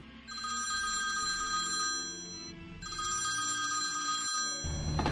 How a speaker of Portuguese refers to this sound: Toca o telefone.